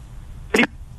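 A phone line breaking up: one short, harsh burst of crackling static cuts across a low, steady hum, then the line drops back to its faint background.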